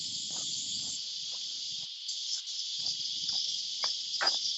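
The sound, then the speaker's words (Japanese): A steady, dense drone of the buzzing 'jii-jii' cicada on a hot midsummer day in Sydney, Australia, fills the whole stretch. It is a continuous buzzing hiss that stays loud and unbroken, with faint low rustles and a few soft clicks beneath it. “でもほとんどね、このじいじいいう、このセミの鳴き声しかしないので、科学ほ本当熱いっていう感じのね、鳴き声ですよね、これね。”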